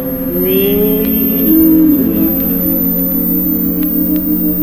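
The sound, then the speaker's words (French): A thin, very high-pitched test tone holds perfectly steady throughout, sitting above a louder low rumble and hum that sounds like a running car engine. “Nous voici à 10 000 vibrations par seconde. À presque 12 000.”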